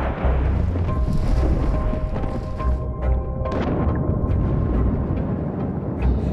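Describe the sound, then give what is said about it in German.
A deep, heavy underwater blast from the detonation of old munitions on the seabed rumbles loudly and continuously, a dense low roar with churning, turbulent energy that stays powerful for several seconds, with no voices. “Der Bau von immer mehr Windparks, und sogar Sprengungen von alter Munition am Meeresgrund. Das alles erzeugt gewaltigen Lärm unter Wasser.”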